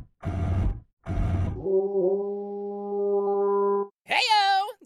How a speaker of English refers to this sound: What the hell is that? Oh, well, this is a shofar, a musical instrument traditionally made from the horn of a ram, and.